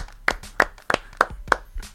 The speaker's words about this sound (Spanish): Un aplauso, por favor, que estaba difícil, joder.